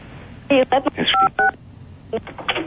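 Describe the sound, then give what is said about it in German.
A rapid run of DTMF telephone keypad dialing tones during a multi-party phone conference, several short beeping bursts in quick succession, then a few more after a brief pause, with muffled voice-like sound mixed in. “Mit Konferenzen da hat man so Rückkopplungsgeschichten, Laufzeitprobleme mit DTMF, wenn wir die rausgefiltert und so.”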